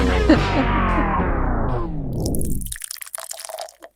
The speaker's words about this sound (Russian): Ну кто столько наливает? Одна пена.